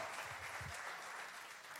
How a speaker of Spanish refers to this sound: ¿Cuánto le dan un aplauso? Ahora sí, el Señor. Por ese, por esa palabra, hermanos. Gloria a Cristo.